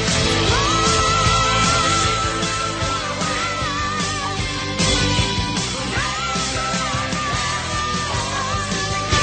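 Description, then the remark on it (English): A high, wavering male voice sings wordless wails in the emotional part at the end of a rock song, over a loud, dense band, the vocal line sliding and trembling above distorted guitars and drums throughout. “it just sounds like he's not making any words right”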